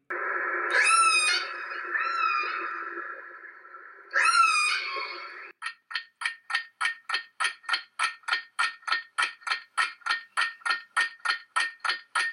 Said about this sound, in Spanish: Y la respuesta es... ¡La ballena! Claro que sí, los sonidos idénticos de la ballena, además de tener un gran sonido que puede imitar la voz humana,